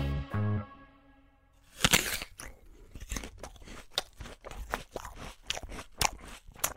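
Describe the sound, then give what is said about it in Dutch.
After a brief tone, someone takes a loud, crisp bite of a crunchy pear, then chews with a steady rhythm of wet, crunching bursts. “Ja, ik dacht bij een verhaal voor peren is dat misschien een lekker begin.”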